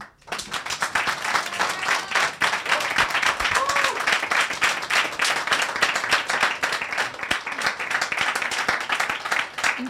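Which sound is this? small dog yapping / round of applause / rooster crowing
round of applause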